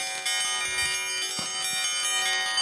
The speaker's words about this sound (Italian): Queste sono le mie palle, si intende quelle metalliche, ok?